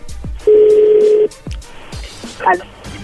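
A phone number being dialed: a steady electronic tone holds for under a second, surrounded by a few soft low thumps, followed later by a short warbling burst of tones.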